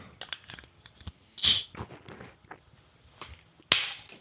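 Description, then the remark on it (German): A bottle of blackcurrant-hibiscus fizzy drink being opened: two sharp, bright hissing bursts of escaping gas, a couple of seconds apart, with softer clicks and handling noises around them and no talking. “Aber die habe ich nicht geschüttelt und sie, sie neigt zum äh, Sprudeln. Zum Schaumigen, ja, zum Überschäumen.”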